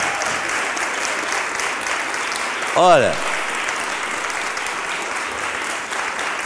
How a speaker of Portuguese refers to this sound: Pode aplaudir o senhor, cadê a foto?